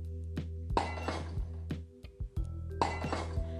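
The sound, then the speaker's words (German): Glass clinking and knocking in a loose, irregular series of bright chinks and duller thunks, with a low steady hum underneath and no voices. “Warum zerbrichst du die ganze Zeit dieses Glas?”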